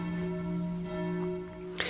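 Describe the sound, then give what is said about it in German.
A bell is rung to close the session, a steady, sustained metallic tone that hums evenly for a couple of seconds, moderately loud, ending with a short noisy rustle. “So, wir hören mit dem Glockenklingeln auf, würde ich sagen, ne?”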